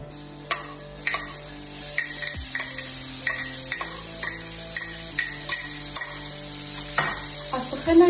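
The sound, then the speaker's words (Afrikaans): Onions frying in butter and oil in a pan for a sauce, a steady sizzle with irregular clicks and taps from stirring, no voices. “ek my eie in botter en olie braai.”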